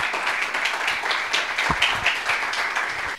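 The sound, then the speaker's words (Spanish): An audience at a talk event applauds with dense, steady clapping that fills the whole stretch, a continuous crackle of many hands at fairly even loudness, with no voices standing out. “Bueno, un aplauso, ¿no?”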